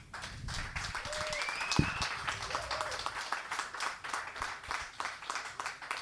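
An audience applauds a guest with dense, steady clapping for about six seconds, a brief whistle rising above it early on before the clapping carries on at a consistent level.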